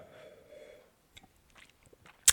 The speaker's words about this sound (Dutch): Ik moet er even een slok wijn van nemen.